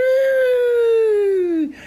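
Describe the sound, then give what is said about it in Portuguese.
A voice imitates the wind whistling during a nighttime windstorm that sent roof tiles flying, with one long, loud, steady hooting tone that slowly slides lower in pitch before breaking off, with no other talking. “Então, logo que eu fui morar lá, a primeira ventania que deu, eu acordei no meio da noite com as telhas voando, aquela violência com que o vento rebola as telhas para todo lado e o vento brincando. Uau! Uau! Uau! E o vento assobiava.”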